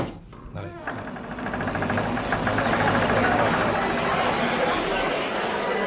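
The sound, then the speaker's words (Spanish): A dense crowd of overlapping voices chattering at once at a bacchanal party, swelling up within the first second and then holding as a loud, steady party babble with no single voice standing out. “Uy, qué de gentecita, cómo está esto.”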